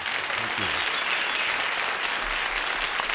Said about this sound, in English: Ladies and gentlemen, another big round of applause for ….